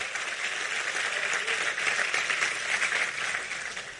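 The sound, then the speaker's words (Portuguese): An audience applauds Jesus steadily, a dense, continuous wash of many hands clapping at fairly even loudness for about four seconds, easing slightly toward the end, with no voices standing out. “Vamos aplaudir a Ele?”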